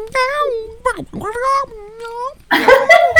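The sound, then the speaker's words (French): A person imitates a cat, giving a run of drawn-out, wavering meows, ending in a louder, rougher yowl-like cry. “si je serais un chat aujourd'hui puis que je m'adresserais avec toi, qu'on ferait la chronique ensemble, moi, ça ferait.”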